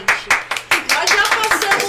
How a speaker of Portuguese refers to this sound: Passa, coloca palmas, som de palmas. Exatamente